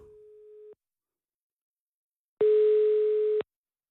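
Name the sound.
telephone ringback tone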